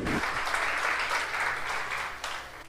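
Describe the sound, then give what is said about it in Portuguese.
An audience applauds for God during a sermon, a dense, steady wash of many hands clapping at once that holds strong throughout before starting to taper at the very end. “Aplauda mesmo se é para Ele.”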